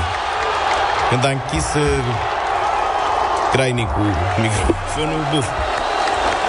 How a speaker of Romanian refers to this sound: Asta e reacția publicului la golul de Ce tare. 2 la 1.